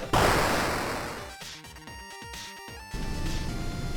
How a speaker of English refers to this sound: Can you hear that? Oh yeah. Why does this sound like a waterfall? What is happening? Furnace kicked in. Furnace kicked in.